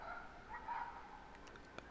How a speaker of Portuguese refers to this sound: Meus cachorros fazendo barulho, né? Não, hum, tudo bem. Meus não, né? Da rua.